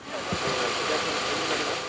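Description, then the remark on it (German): A car engine idles steadily at a police traffic control checking a curfew on a main road, a low continuous rumble with a faint rattling hum, heard on its own without talk for a couple of seconds. “Motor wieder aus erstmal.”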